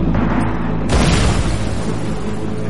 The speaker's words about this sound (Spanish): cuando explota una granada alemana. La explosión golpea a dos de los canadienses y a Major le salpican en la cara restos ardiendo.